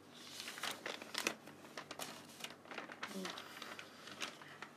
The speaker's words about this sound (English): So this is me turning the pages. I hope you can hear it clearly.